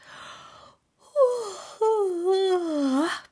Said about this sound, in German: stand nun breitbeinig da, streckte die Fäuste weit in die Luft und gähnte sich herzhaft